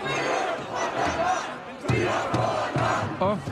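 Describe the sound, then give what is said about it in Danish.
A large crowd at a demonstration chants battle cries and sings, shouting in unison, a dense roar of many voices with rhythmic surges of rising and falling calls, loud and continuous throughout. “Demonstrationen den kom dog hurtigt tilbage på sporet, og så fortsatte det ellers med sang, kampråb”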